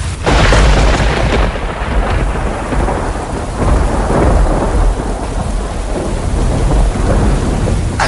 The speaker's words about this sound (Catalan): Està plovent. Fot una nit tormentosa